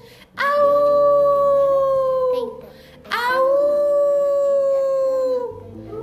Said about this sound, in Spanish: ¡Au! Ya va a lo lejos el lobo.